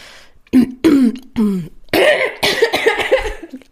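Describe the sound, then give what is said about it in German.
A rough bout of throat clearing and coughing, several sharp bursts in quick succession followed by a longer raspy, gravelly hacking, loud with no speech. “Oh, da ganz schöner Frosch im Hals, so passend zu Tieren.”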